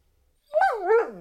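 A single drawn-out vocalization from a begging dog, a whiny, pleading yelp that rises and bends in pitch before trailing off, alone after a moment of quiet.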